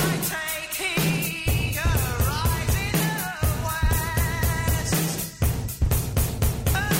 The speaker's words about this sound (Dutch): Ik heb altijd gedacht dat er een volledig nummer achter zou zitten en dat ze enkel de drums en de zang hebben overgehouden. Magistrale vondst.